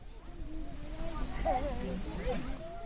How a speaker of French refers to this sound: En montant, j'ai observé avec délice les paysages grandioses à la frontière des Alpes et de la Provence partout des montagnes escarpées et dans mes oreilles le son des grillons champêtres.